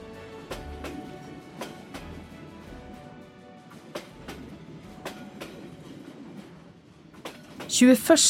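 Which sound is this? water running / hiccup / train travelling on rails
train travelling on rails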